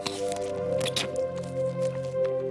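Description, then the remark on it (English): Wet squelching of a juicy star fruit, freshly picked off the tree, being eaten, with a few short squishy bursts and faint drips of juice over a steady low hum in the background. “oh, that's juicy.”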